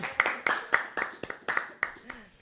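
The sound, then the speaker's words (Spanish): Steady, rhythmic clapping of about nine sharp claps at an even pace, with voices and a sustained vocal tone running underneath, fading slightly toward the end. “Fuerte el aplauso.”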